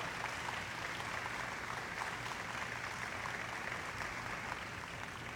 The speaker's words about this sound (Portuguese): Dê o melhor aplauso que você já deu ao Senhor em muito tempo. Que sejam ouvidos no céu.